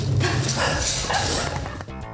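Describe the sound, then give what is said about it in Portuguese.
A dog barks close by, loud and excited, in a quick run of barks lasting a couple of seconds, with no one speaking. “Ai, esse meu cachorro.”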